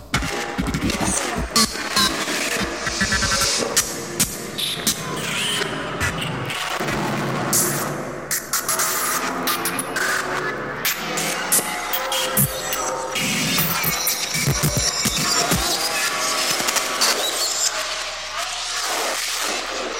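A dense musique concrète tape collage made with the cut-up technique: spliced fragments of noise, bursts and rumbling booms jump abruptly from one to the next, staying loud and chaotic throughout with no voices.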